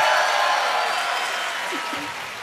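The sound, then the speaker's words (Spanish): A crowd claps loudly and steadily, a dense wash of applause that fades only slightly, with a faint voice briefly breaking through near the end. “fuerte el aplauso”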